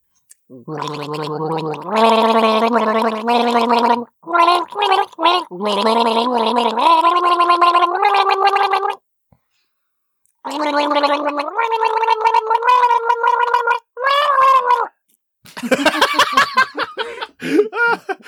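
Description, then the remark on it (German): A voice sings the chorus of a pop song while gargling, bubbly and warbling, in several long phrases with brief pauses, climbing toward strained high notes near the end. Loud, with no talking. “Ich hätte gern den Refrain von ….”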